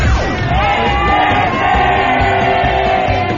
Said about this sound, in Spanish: Queremos que te unas al tradicional grito Godínez desde el Ángel de la Independencia.